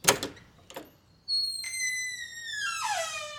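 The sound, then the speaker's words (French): A few sharp clicks of a latch, then a door swings open with a long, high creaking squeal that wavers and slides downward in pitch, fairly loud, with no voices. “Ça cogne et il y a personne Faut peut-être que je l'ouvre.”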